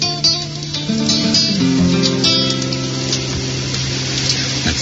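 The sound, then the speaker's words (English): River rapids rush in a steady, continuous roar of churning water that fills the whole clip at a fairly loud, even level, with no one speaking, on a river at a place called Zek Boulay, north of Montreal. “With a chorus of rapids behind the fire in the river.”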